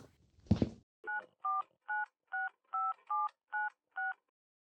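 After a brief soft thump or rustle, a number is dialed on a gold telephone: eight evenly spaced touch-tone beeps, clear, with nothing else around them.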